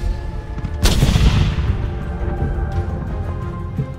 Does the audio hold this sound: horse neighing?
no